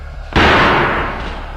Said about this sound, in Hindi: एक रात सिरोही अपनी टीम को लेकर उस पहाड़ की तरफ निकल गया और उसने पहाड़ के अंदर जाने वाली गुफा का दरवाजा तोड़ दिया